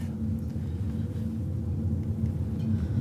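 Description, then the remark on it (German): Steady low rumble of a car interior while the car turns in toward a cattle breeding farm, a continuous engine drone with a faint tonal hum, no one speaking. “Also wir biegen gerade ein Ah ja, hier sieht man schon einen Zuchtbetrieb, einen Rinderzuchtbetrieb.”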